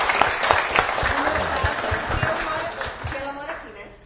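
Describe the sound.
An audience applauds with dense, steady clapping that stays fairly loud throughout, with some voices mixed in, before gradually tapering off toward the end.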